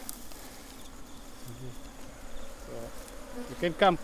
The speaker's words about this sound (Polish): Latają. Pszczoły afrykańskie tak właśnie brzmią. Nie brzmi to fajnie, tak to powiem. Latają wszędzie. Trochę ciemno przed oczami się w tej chwili robi. Nie z emocji, tylko z powodu liczby pszczół.